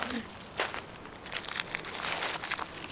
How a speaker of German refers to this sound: Warum gibt er denn das Bonbon zurück ins Papier? Was machst du denn da, Bengel? Ich werde später fertig essen. Ich habe ja jetzt schon dran gelutscht.